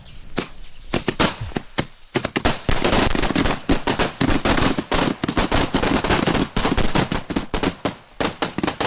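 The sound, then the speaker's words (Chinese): A long, rapid string of ceremonial salute firecrackers bursts at a family's ancestral graves during an ancestor-worship rite ahead of a grandson's wedding, in dense, crackling pops, a few scattered bangs at first and then a continuous loud rattle that stutters on for several seconds with no talking. “礼炮声后，董老汉和儿子董永站起身，又郑重其事鞠了三个躬，告慰了先人。”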